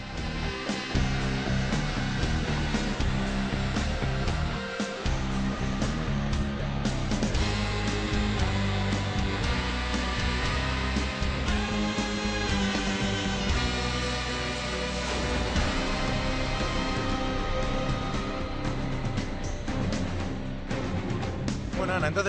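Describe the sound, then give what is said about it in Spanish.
A dark, sordid, brooding film-score melody from a film of around 2005, with saxophone drifting in the background, plays continuously and fairly loud for over twenty seconds, with no one talking over it. “la canción suena, como muy bien ha dicho Ana, es oscura, sórdida, con, ese, con unos toques de saxo al fondo”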